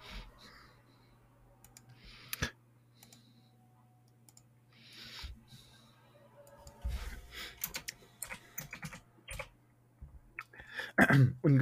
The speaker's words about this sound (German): Was, du hast irgendwas gerade auch in die Tastatur reingeschrieben. Was schreibst denn du da rein? Mein Name.